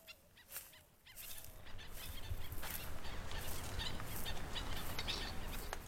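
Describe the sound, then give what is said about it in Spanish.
Calls of a viuda bird, which has black plumage on its back and white on its underside, ring out over a dense, steady wash of wetland ambience, with short chirps and whistles repeating; no one speaks. “Tenemos la viuda, está vocalizando la viuda.”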